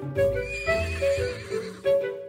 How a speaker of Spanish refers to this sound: Decía que los reyes apuntaron hacia la diana que tenían frente a ellos, y cuando se iba a dar la señal para que dispararan sus flechas, un caballo entró en el campo e interrumpió el inicio de la competencia.